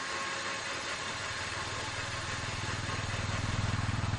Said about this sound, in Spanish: VR conduce su moto por la favela.